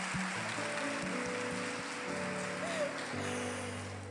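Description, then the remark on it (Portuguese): A church audience applauds in a dense, steady wash of clapping that lasts about four seconds, with sustained keyboard chords and a few scattered voices underneath. “Uma salva de palmas, mulheres precisam dessa maravilhosa.”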